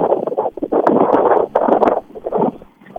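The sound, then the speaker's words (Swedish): Gusty wind, which has just begun to pick up, buffets the microphone in loud, rumbling bursts with brief lulls between them, a muffled, roaring low-frequency noise with no voices. “Som ni hör kanske via Eh, här så blåser en del. Det har precis börjat eh, lite blåst.”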